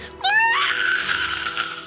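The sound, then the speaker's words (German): A human voice imitates a dying rat's shrill scream: one high, piercing squeal that rises sharply, then holds as a strained, wavering shriek for over a second, loud. “nagelt einfach den Kopf der Ratte so mit einem Schlag auf den Boden fest, schlägt die Schädeldecke und mit einem letzten Schrei”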